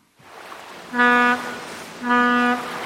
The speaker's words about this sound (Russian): Ну а теперь услышим наш замечательный пароход.